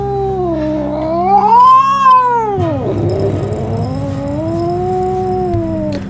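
A cat named Bhuri, sitting on top of a fridge, lets out long, loud, wavering yowls that rise and fall in pitch, with a low, growly undertone and no one speaking.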